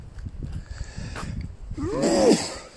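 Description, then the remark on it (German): A single sudden sneeze bursts out after a stretch of low rumbling noise, its sharp rising-then-falling vocal burst loud and brief. No talking is heard. “Äh, wer sagt's denn? Gesundheit.”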